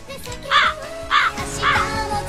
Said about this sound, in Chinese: 你为什么要放乌鸦叫呢？